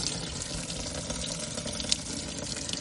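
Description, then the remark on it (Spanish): Water pours steadily from the tap of an outdoor water tank marked as non-potable, a continuous splashing hiss that holds an even level throughout with no voices present. “Según bajamos ahora que hay un depósito de agua que pone un cartel bien grande, no potable, que, que funciona.”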